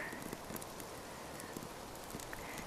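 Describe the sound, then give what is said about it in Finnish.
A small campfire catching on birch bark, lit with a single match in windy weather: a steady, soft crackle with scattered sharp pops and snaps, fairly quiet, with no voices. “Saadaanko me yhdellä tikulla syttymään tämä nuotio. Ainakin tuohi otti heti ensimmäisestä Taitaa tikusta tuon tulen”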